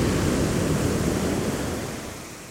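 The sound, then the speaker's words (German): Steady roar of ocean surf washing onto the shore, a broad rushing noise that swells slightly and then gradually fades, with no voices present. “Na dann, lasst uns all unsere Probleme für die nächste halbe Stunde mal über Bord werfen und uns ans Meer entführen.”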